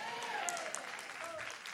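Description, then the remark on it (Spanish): A church audience applauds Jesus during a sermon, clapping steadily in a dense, continuous wash of applause, with a few sharper individual claps standing out and faint voices mixed underneath. “Den un aplauso fuerte a Jesús.”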